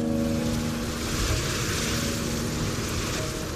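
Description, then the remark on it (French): A steady, loud roar of rough sea and wind during a gigantic storm at sea, with churning water and a low droning hum underneath, no distinct breaks between waves and no voices. “Elle se retrouve à nouveau dans les vagues, ballottée comme un bouchon dans sa cabine.”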